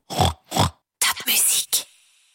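Two short, snorty pig grunts, then a longer, squealing oink with a few rough bursts. Fairly loud, with no talking.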